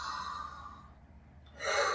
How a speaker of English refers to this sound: So we'll just take a couple cleansing breaths.